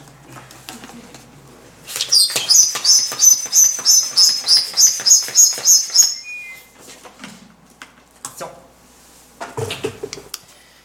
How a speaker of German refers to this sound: Ich habe da mal ein kleines Experiment. Ich würde den Luftballon jetzt aufpusten, aber das wäre nicht Corona-konform, deswegen muss ich ihn pumpen. Ich warne euch vor, die Pumpe quietscht.